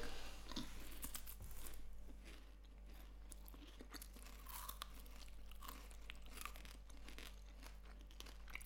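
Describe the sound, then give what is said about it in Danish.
Steady crunching as someone chews a gritty, crunchy chocolate rum-ball pastry, like a mini rum ball with chocolate on top, with repeated bites and crackly mastication continuing for several seconds and no talking. “Er der ikke noget, der knaser sindssygt meget? Jo, den knaser lidt mere. Det er som at spise sand.”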